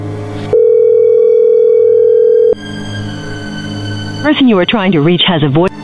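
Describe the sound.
One long, steady electronic ring tone from a redialed outgoing phone call sounds for about two seconds, then stops. After a low hum, a voice speaks briefly.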